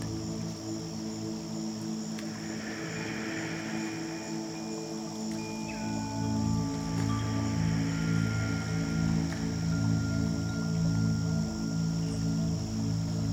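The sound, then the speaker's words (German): A steady outdoor ambience of gently trickling water and wind moving through the leafy crowns of trees in a forest, continuous and moderately quiet, with a low droning hum underneath and a few faint chirps; no one speaks. “hören das Plätschern vom Wasser und den Wind, wo geduldig durch die Blätterkronen der Bäume im Wurzelwald streicht.”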